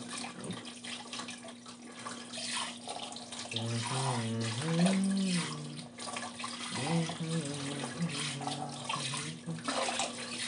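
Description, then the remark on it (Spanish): Cold water runs steadily from a tap in a continuous hiss, while a low voice speaks briefly over it twice. “Y encima el agua está fría, o sea, no, no ayuda.”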